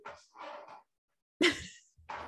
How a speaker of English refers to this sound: I'm so sorry, my dog is so obnoxious.